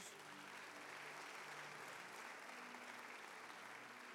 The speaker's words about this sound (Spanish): ¿Cuánto le dan un aplauso a Dios?